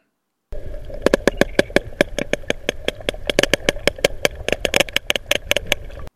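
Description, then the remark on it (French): Two sperm whales trade rapid click sequences, a steady stream of sharp, loud clicks repeating for several seconds over a low underwater rumble, with some clicks bunching closely together. “Oui, c'est très rapide et ce sont deux cachalots, deux séquences qui s'enchaînent deux fois de suite.”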